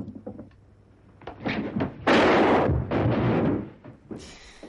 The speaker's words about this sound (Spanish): Bueno, con ese disparo cortamos la escena.